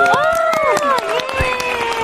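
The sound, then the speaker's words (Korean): Lively clapping and cheering from a small group on a radio show, celebrating the release of a group's first single album, with sharp hand claps scattered over several overlapping excited voices that rise and fall in pitch, steady and loud throughout. “첫 번째 싱글 앨범이 나왔습니다. 박수!”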